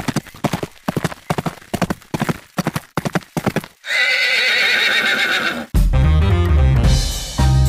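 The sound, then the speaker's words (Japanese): A horse's hooves clip-clop in a brisk, even rhythm, clear, then a loud, drawn-out neigh rings out before a burst of music takes over. “はいそれでは始めていきましょう馬が舞うスタートです”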